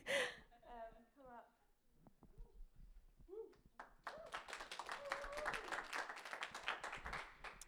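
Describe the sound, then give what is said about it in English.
Brief vocal sounds and murmurs give way to a spell of muted applause, a modest scattering of hand claps that builds into a steady, soft patter and continues to the end. “thank you for that muted applause.”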